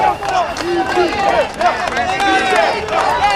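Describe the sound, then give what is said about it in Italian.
A loud crowd at a rally in Milan, Italy, shouts and yells all at once around a general's megaphone speech, many overlapping voices rising and falling in a dense, continuous roar with no pauses. “Gente che grida.”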